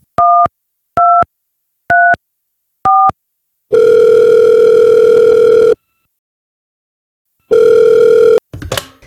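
Four short keypad beeps dial a number, then a long steady phone tone sounds, pauses, and repeats before a brief clatter as the line connects. No one speaks.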